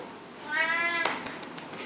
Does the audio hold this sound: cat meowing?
yes